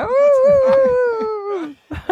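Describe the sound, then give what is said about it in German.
A dog whimpers in one long, drawn-out whine that slowly sinks in pitch before breaking off, followed by a few brief soft sounds. “Hunde sind immer gleich.”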